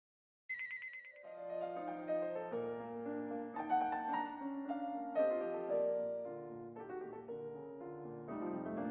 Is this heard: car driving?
no